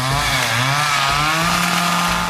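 A loud chainsaw engine roars continuously, its pitch rising and dipping as it revs up and down several times, with no voices.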